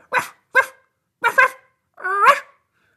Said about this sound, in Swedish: Vi har dogs. Woof, woof. Du vet, de brukar säga We got dogs on this team.